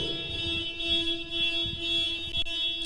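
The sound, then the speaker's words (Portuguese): A car alarm going off, a steady, piercing electronic tone holding unbroken for the whole stretch over a low, uneven rumble, with no one talking. “É o meu carro, fica tranquilo.”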